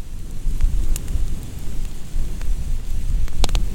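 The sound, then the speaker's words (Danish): A fire lit with a flamethrower roars steadily with a deep, rumbling whoosh, broken by a few sharp crackles and pops, loud, with no voices. “Nu kom der så ild og der var ild!”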